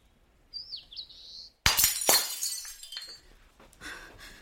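A drinking cup suddenly smashes, a sharp loud crash at close range followed by a second impact and the tinkle of scattered shards, after a brief high chirp-like squeak.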